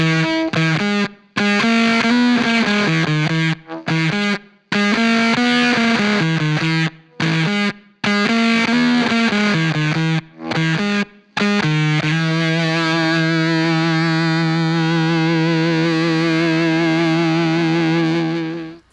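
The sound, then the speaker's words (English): A heavily distorted electric guitar, run through a fuzz pedal followed by an Earth Drive overdrive pedal, plays a choppy melodic riff in the Lydian mode with short pauses, then settles into sustained, wavering held notes with a thick, saturated fuzz tone. No talking. “Both in compositional content as well as the tonal variety with tying in the earth drive.”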